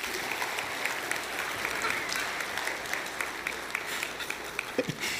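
An audience applauds steadily, a dense wash of many hands clapping at once, sustained at an even level for several seconds with no voices standing out.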